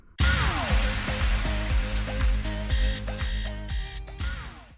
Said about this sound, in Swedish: Efter lite rumsbyten och så vidare så hittade vi en eh, lobby här på Hotel Royal i Stockholm. Det är lite dammsugare i bakgrunden och så vidare.